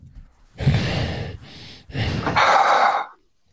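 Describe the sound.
Heavy, rasping breaths pushed into a microphone, a slow inhale-exhale cycle imitating Darth Vader's mechanical breathing, loud with no talking.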